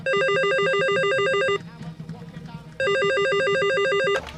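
A telephone rings loudly and close by in two long bursts of warbling electronic trills, separated by a short pause, with no voices over it.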